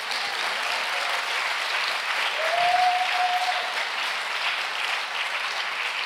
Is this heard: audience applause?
yes